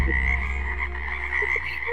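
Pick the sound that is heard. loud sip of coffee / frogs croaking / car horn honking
frogs croaking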